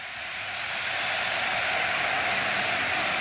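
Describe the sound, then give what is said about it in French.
The crowd at the Vélodrome stadium in Marseille gives a sustained ovation as Alexis Sanchez is substituted off, a dense, steady wash of applause and cheering that swells slightly at first and then holds loud and even throughout, with no voices speaking over it. “Écoutez l'ovation.”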